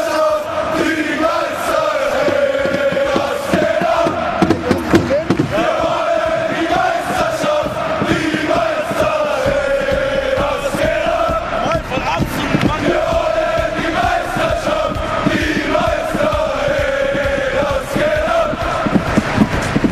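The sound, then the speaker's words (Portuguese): A large crowd of Hertha football ultras in the stands of the Olympic Stadium sings a parody of a song's chorus in unison along with a duo of MCs, a loud, steady melody that rises and falls in repeating phrases over a dense roar of voices, sustained without pause. “Então a gente vai ouvir aí eles fazendo essa paródia junto com a dupla de MCs.”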